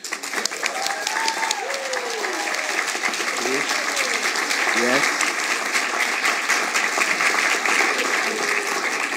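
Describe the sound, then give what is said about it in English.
A crowd breaks into sustained, steady applause for a band, a dense wash of clapping that holds at an even loudness for several seconds, with a few faint voices and whoops mixed in underneath. “Um, so, without further ado, just wanted to want us, wanted us to raise round of applause for ….”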